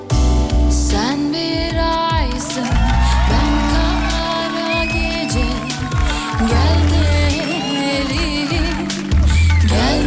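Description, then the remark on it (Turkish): An applause and cheering sound effect played on a radio show: a loud, continuous burst of crowd cheering and applause, with whoops and whistles rising over the dense roar throughout, and no individual speech standing out. “Süperdiniz bu alkışlar size.”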